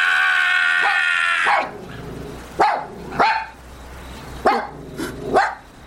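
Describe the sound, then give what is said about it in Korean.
A steady, harmonic whine is followed by four sharp, high barks from a mixed-breed puppy, spaced irregularly with short pauses between them. No one speaks. “너 같은 잡종 강아지 따위가 무시할 수 있는 존재가 아니라고!”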